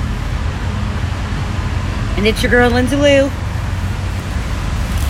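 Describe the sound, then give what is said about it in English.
A train rolls past on Main Street, producing a heavy, continuous low rumble that stays steady for the whole stretch, with a person speaking briefly over the noise. “Sorry, we got a train going by.”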